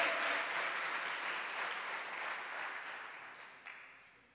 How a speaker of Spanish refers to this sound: Fuerte ese aplauso al Señor. Fuerte ese aplauso al Rey de Reyes y al Señor de Señores.